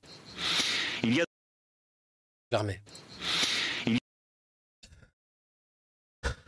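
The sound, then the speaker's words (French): Two long, loud, strained breaths drawn right up against a microphone, rasping and tense, separated by a pause of silence, then a couple of faint brief noises. “Tu me vois, moi, respirer dans mon micro comme ça tendu.”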